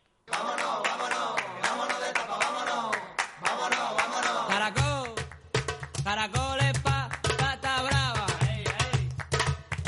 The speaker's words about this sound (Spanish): Hay que ver cómo me gusta a mí esta sintonía.